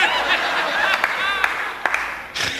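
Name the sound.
brief applause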